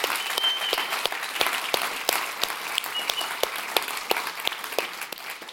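An audience applauds steadily, a dense wash of many hands clapping with sharp individual claps standing out, sustained at an even level throughout without any voices.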